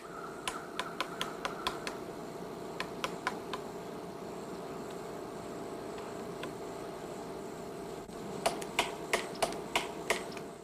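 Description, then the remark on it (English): A woodpecker pecks in short bursts of sharp, woody taps, spaced a beat apart, with quiet pauses between bursts over a steady outdoor hum; the knocks sound crisp. “So no water sounds in this one, by the sound, but from what I heard, it sounded as if something was beating its beak it on something.”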